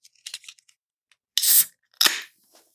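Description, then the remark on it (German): A can of hop-forward Norwegian beer from the brewery Lerwick being opened: a few faint metallic clicks, then two loud, sharp hissing bursts as the tab cracks and gas escapes. No voices. “Und wo wir gerade beim Thema sind, öffne ich das Bier und ratet mal, in was für einem Gefäß dieses Bier sich befindet.”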